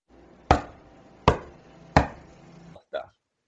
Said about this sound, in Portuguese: E o avô do garoto bate na porta.